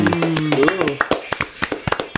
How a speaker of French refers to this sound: Let's go les boys, on applaudit.